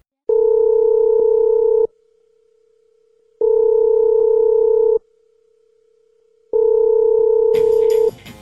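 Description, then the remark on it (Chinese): A telephone ringback tone purrs three times on a call to SF Express customer service, each steady, mid-pitched ring lasting about a second and a half with equal pauses between, ending in a brief burst of crackling noise as if the call connects. “于是呢，他就打电话给了顺丰的客服。”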